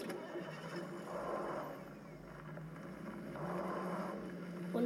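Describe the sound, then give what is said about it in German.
A car engine turns over and rumbles into life, its low, steady drone swelling and dipping a couple of times at moderate volume, with no voices present. “Auto!”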